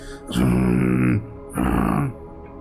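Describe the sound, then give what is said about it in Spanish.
A person imitates a dog's growl with two low, rumbling vocal bursts, each about a second long, separated by a short pause, loud. “me estaba yo sirviendo cuando empiezo a escuchar a mi perro, otra vez que hacía el...”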